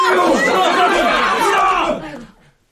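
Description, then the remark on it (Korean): A crowd of many people shakes their fists and shouts together urging each other to go, in a dense, overlapping roar, loud for about two seconds before quickly fading out. “일동은 주먹을 쥐어 흔들면서 어서 가자고 소리쳤습니다.”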